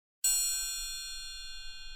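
A single bright metallic strike, like a triangle, rings out clearly and sustains with a shimmering high tone that slowly fades. No voices are present.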